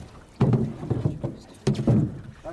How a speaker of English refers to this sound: what you're all doing is holding the oars upright, and they are almost as long as the boat. Okay, turn long to the boat, please. And they weigh about 10 pounds. Both sides blades down when you've got some water, please